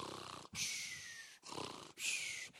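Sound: voice imitating snoring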